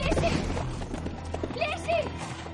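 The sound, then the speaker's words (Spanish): Horse hooves clip-clop in a steady, fairly loud rhythm as a white horse is ridden off, with a few voices calling out over the hoofbeats. “se aleja en su caballo blanco.”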